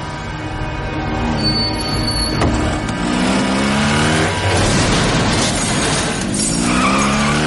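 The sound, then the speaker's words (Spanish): A motorcycle engine roars as it pulls up behind a car stopped at a red light, draws alongside it, then accelerates away, its pitch climbing and falling, mixed with loud screeching tires and traffic noise, sustained throughout with no voices. “La moto se coloca tras el coche y luego avanza hasta ponerse a su lado.”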